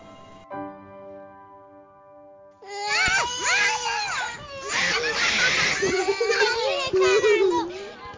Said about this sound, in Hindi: हे भगवान गर्मी की छुट्टियां और बच्चों का शोर